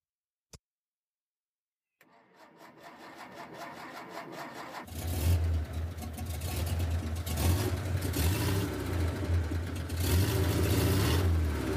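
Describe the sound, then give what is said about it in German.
A Porsche 356 Speedster engine cranks and catches, then runs with a loud, buzzy, slightly rattling drone that swells as the car pulls away, with no voices over it. “Das schreit nach einer Wiederholung des Motorentons.”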